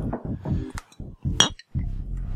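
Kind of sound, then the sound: household object, clinking glasses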